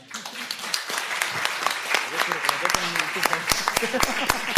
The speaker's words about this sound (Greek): Ναι, να την χειροκροτήσουμε.